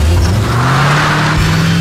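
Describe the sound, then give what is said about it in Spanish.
A car engine revs up loudly, its low hum climbing slightly in pitch as it accelerates over a couple of seconds, with steady road and motor noise and no voices. “Ese sonido que te lleva a todas partes, también está Salfa, con la más amplia variedad de marcas en la venta de autos nuevos y usados”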